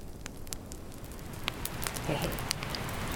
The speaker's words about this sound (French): il y a de la pluie et il y a le feu juste devant nous.